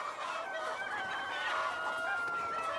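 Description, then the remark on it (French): A dense flock of chickens clucks and chatters continuously, many overlapping calls at a steady, fairly loud level with no pauses and no voices. “Monsieur Jefferson était éleveur de poulets”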